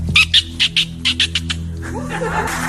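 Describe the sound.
A voice mimics a parakeet with a quick run of about eight sharp, high chirps, fairly loud, trailing off into softer breathy noise.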